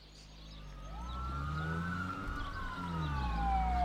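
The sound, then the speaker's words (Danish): Wailing police sirens from five patrol cars in a car chase on a country road just west of Horsens, Midtjylland, on a warm summer afternoon rise and fall over a low rumble of traffic. Several tones overlap and grow steadily louder as the vehicles approach. No one speaks. “Men den landlige eftermiddagsidyl blev brudt af hylende politisirener fra fem patruljebiler på landevejen lidt vest for Horsens.”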